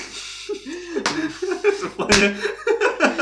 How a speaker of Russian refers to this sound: Черт. Вы понимаете, что вот каждый этот хлопок мне придется вырезать? Нет. Что он будет, скорее всего, невнятным шумом записан.